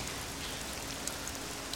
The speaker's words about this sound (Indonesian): Kita masuk dulu ke mobil. Jangan hujan-hujanan kayak gini. Malu dilihat sama orang.